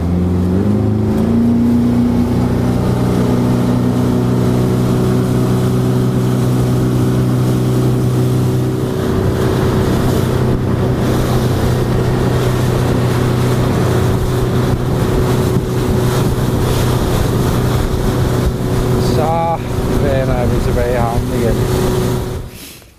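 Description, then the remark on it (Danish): A motorboat engine drones steadily and then rises in pitch as the boat picks up speed on its way back to Miljøskolen after setting fishing nets, with rushing water and wind buffeting throughout; a few brief whistling tones sound near the end. “Sætter vi lige lidt mere fart på her.”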